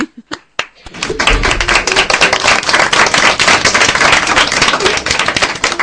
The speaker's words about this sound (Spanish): Ese aplauso, ¿eh? Para usted.